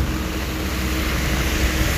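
Steady, dense rush of torrential rain outdoors beside a road, the pavements flooded like waterways, with a continuous low rumble of passing vehicles, loud and constant throughout with no voices.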